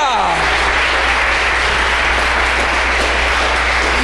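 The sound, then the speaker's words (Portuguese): A church audience applauds the Lord at the pastor's call in a steady, dense wash of clapping. It stays loud and sustained for the whole stretch, with no pauses or individual claps standing out. “Porque você é coluna na casa de Deus, e se você crê nisso, aplaude ao Senhor.”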